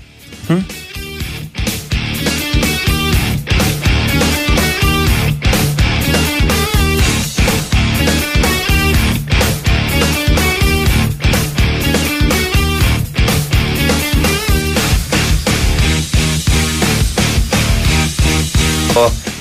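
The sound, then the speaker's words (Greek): A song plays loud and continuous for the whole stretch, with a steady driving beat and full, layered instrumentation that builds in within the first couple of seconds. “Αυτό το τραγουδάκι το ακούω μέχρι και εγώ σε ροκάδικα.”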